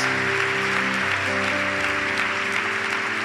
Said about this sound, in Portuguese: Vamos dar mais uma forte salva de palmas a Jesus por cada um que fez esta oração pela primeira vez.